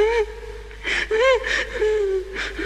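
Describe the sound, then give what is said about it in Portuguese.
A recording of someone crying, not a baby, played as a sound effect: wavering, sobbing wails broken by sharp breathy gasps, several in quick succession, fairly loud, with a steady low hum underneath. “Não, não é um é bebê, mas é um choro, é.”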